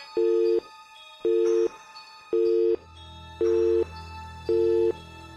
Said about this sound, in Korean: 갑자기 전화가 지직거리며 끊어졌지만